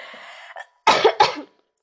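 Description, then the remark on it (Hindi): Two sharp, loud coughs in quick succession, preceded by a soft breathy exhale and followed by silence. “हो ही गई खांसी”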